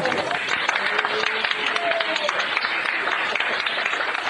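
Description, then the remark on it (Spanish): Doctors and nurses filling a hospital room clap steadily and continuously, smiling, after a patient's breathing tube is removed, with scattered voices and a few brief whoops or exclamations mixed into the applause throughout. “Respira, respira tranquilo, le dicen, y la sala se repleta de médicos y enfermeras que aplauden y sonríen.”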